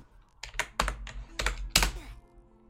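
Loud, uneven bursts of keyboard smashing, several heavy clustered key strikes with brief pauses between, no voices present.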